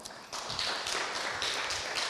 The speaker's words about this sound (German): Können wir einen kleinen Applaus geben für die sechs Leute?